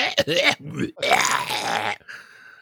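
A couple of short, harsh throat bursts followed by a longer, raspy, strained cough that sounds almost like a groan, then trailing off into quiet. No speech.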